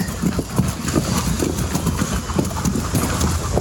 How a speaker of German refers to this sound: Hier werden die Pferde jetzt noch trocken geführt.